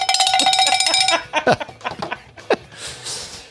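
A cowbell clanks in a quick, steady rhythm for about a second, fairly loud, then stops and gives way to scattered laughter and breathy snorts.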